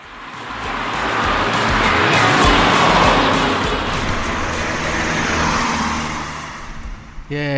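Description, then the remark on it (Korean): A car drives past alongside with a steady whoosh of engine and tire noise that swells and then slowly fades. A song playing inside the car is faint and buried beneath the road noise, and nobody speaks. “자, 옆에 차가 지나갑니다.”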